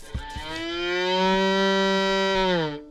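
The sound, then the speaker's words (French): A violin imitates a cow's moo as a sound effect: one long, loud bowed note that swells, holds for a couple of seconds with a slight pitch bend, then fades. Clear, with nothing else sounding. “Pas mal la vache, non Elle est mouette aussi.”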